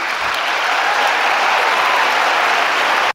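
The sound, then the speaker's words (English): Thunderous applause from a large crowd, a dense, steady roar of clapping that holds at full loudness for about three seconds before cutting off abruptly. “And the thunderous applause.”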